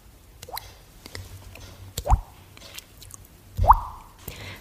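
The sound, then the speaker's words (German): A voice imitates dripping water with a few wet mouth plops, each a short hollow bloop, spaced irregularly over a few seconds in otherwise quiet surroundings. “so Tropfgeräusch.”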